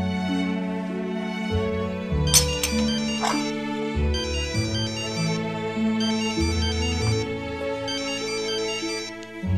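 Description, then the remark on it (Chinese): A phone ringtone plays continuously during a meal at home, a bright synthesized tune with repeating high notes over a steady bass line, loud and with no voices. “谁呀、接吧， 接他干啥？ 万一有事儿呢？”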